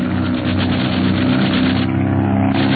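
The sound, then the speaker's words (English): The engines of two propeller airplanes in an aerial dogfight roar loudly in a steady, throbbing drone with a slight shift in pitch partway through. No one speaks. “The two planes are engaging in an aerial dogfight, and Barney is hard put to outmaneuver his enemy.”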